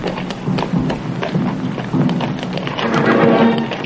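Several horses, the Indians' horses at their resting place, some bearing distinctive tribal markings, whinny and snort over a steady patter of hooves, with repeated clip-clop thuds and breathy neighs overlapping throughout, loud and continuous with no talking.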